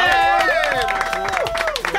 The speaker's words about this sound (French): Ah, ben c'est la première fois qu'il y a des applaudissements dans ce studio-là. c'est quelque chose.